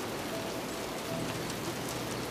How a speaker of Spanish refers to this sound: una fuerte lluvia bajaba desde el cielo y sin ninguna compañía a su alrededor, se quedó sentado en un caspete abandonado a la orilla de un riachuelo, viendo cómo la lluvia caía en torrencial aguacero y cómo fluía el agua a través de su cauce.